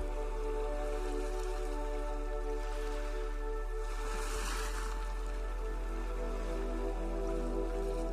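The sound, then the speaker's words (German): Soft ocean waves wash onto a beach and recede in a slow, steady rhythm, one gentle swell rising in the middle, with a low constant hum beneath and no voices. “Richte deine Aufmerksamkeit mal auf die Wellen, die an den Strand gespült werden.”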